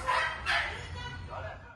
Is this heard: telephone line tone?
no